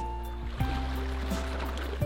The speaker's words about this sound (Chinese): 听到海浪声了吗？我们现在所在的位置就是厦门环岛南路二百九十号的五味素食附近